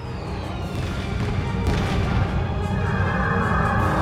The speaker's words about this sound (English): oh, and apparently the Tholian ship has fireworks. That's also a veteran reward.